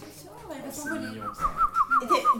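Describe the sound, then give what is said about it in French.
After some brief talk, a voice makes about six quick, tiny chirping squeaks in a row, imitating a stifled, bird-like little sneeze, moderately loud. “Oui, ma fille, c'est un petit oiseau.”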